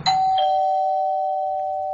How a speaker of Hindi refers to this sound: दरवाजा कमरे के अंदर जाते ही बंद हो गया और फिर दस मिनट के बाद जब डोरबेल बजी